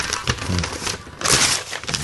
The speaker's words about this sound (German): Was zerknüllst du da gerade? ein Geburtstagsgeschenk für dich.